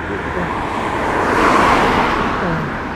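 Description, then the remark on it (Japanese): A car passes close by, its broad road noise swelling to a peak around the middle and then fading away, loud and steady with no talking over it. “今ちょっと近くを車が通ったんで少し大きな音だったんじゃないかなと思うんですけど”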